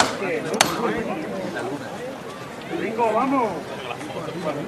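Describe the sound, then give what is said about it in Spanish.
A foreman's hammer strikes the procession float once to prepare a new lift, a single sharp, loud knock early on, while voices and crowd chatter continue steadily around it. “que habla con su gente y ahora sí va a sonar el martillo.”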